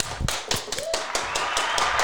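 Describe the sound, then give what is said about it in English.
A crowd breaks into steady applause to introduce a guest, many hands clapping in a dense, continuous patter that stays fairly loud throughout, with a faint high whistle-like tone rising briefly through it. “And so, Bill, let's introduce Bill with a big round of applause, right?”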